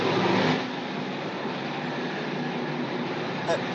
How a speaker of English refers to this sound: I'll just wait for the train to go past.